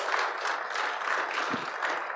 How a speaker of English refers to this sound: Before we get started, why don't we give these guys a hand of applause? I don't think we do that enough.